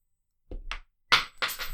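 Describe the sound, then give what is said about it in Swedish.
A five-krona coin tossed in a coin toss drops onto a hard surface with a dull thunk, followed by a few sharp, bright clatters as it bounces and rattles to a stop. No one speaks. “Oj. Fuck, den ramlade ner.”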